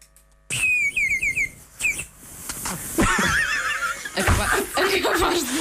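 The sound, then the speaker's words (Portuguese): A water bird whistle warbles in bright, bubbly trills as it is blown with varying intensity, its pitch wobbling and breaking as the finger hole is covered and uncovered, with brief pauses and some laughter-like sounds mixed in, fairly loud. “Ah, dependendo da intensidade do sopro, consegues algumas variantes interessantes, repara.”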